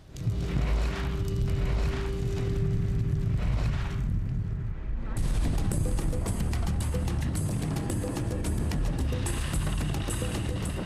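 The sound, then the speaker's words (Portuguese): A deep, continuous roar of a large wildfire whose flames, nearly 10 meters high, close the road, with dense rumbling low end and bursts of crackling and popping that grow louder and busier partway through, sustained throughout. “As labaredas fecham a estrada, chegam a quase 10 metros.”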